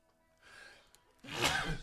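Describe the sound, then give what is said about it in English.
A single loud sneeze: a brief breathy intake builds up, then a sharp explosive burst of air that trails off quickly. No speech is heard. “I sneezed.”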